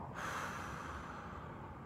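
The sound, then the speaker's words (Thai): A long, airy breath drawn slowly and steadily as part of a slow deep-breathing exercise for controlling anger, a soft continuous hiss lasting nearly two seconds with no talking. “แต่หนึ่งในวิธีที่ง่ายและก็เร็วมากๆ คือการหายใจเข้าและออก 8 ครั้งเข้า ให้ช้าๆนะ แล้วกั้นไปนิดนึงแล้วก็ออก”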